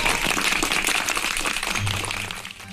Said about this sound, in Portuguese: Então, palmas para os beijoqueiros desse Brasil.